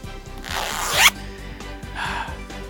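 A zipper is pulled up in one quick, rising rasp that ends abruptly, followed a moment later by a shorter, softer zipping sound, close and clear over a faint background.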